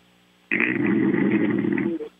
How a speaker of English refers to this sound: some good snoring though.